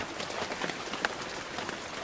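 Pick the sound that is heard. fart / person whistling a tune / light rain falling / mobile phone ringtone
light rain falling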